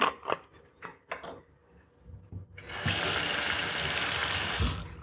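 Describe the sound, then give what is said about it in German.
Some brief clicks and handling noises, then a tap turns on and water pours steadily into a SodaStream bottle, measuring out about 800 millilitres, for a couple of seconds, loud, before stopping. “Und dann versuche ich mal da ungefähr, es ist eine Soda-Stream-Flasche.”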